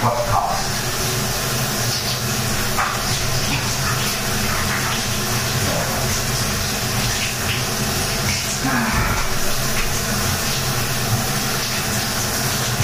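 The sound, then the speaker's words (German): Shower water runs in a steady, dense hiss that holds at an even level for the whole stretch, with a few faint shifts in the spray but no pauses. “Dazu machen wir das Wasser natürlich aus.”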